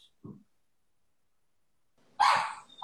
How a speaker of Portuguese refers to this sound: Espera um pouquinho, minha cachorra que resolveu latir. Ela quer Bom, participar. Ela quer participar, ela sempre quer.